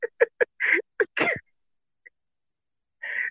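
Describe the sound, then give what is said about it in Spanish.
A turkey gobbles: a quick burst of throaty, warbling pulses, a brief pause, then another loud gobble. No one speaks. “mira, guajolote, güey.”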